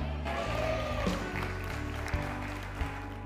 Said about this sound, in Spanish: Eh, están bien entusiasmados esos cinco que aplaudieron, amén.